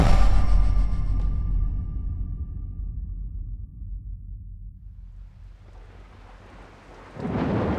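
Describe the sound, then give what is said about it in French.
A deep rumble of thunder from a summer thunderstorm in Perpignan, France, on 5 August 2013, after a heatwave, rolls in loud, slowly fading as steady rain hisses down, then a fresh burst of rain or thunder swells near the end. No one speaks. “À Perpignan, la canicule est retombée, laissant la place aux orages d'été.”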